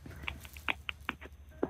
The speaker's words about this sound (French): Ah, vous êtes en train de tripoter votre téléphone.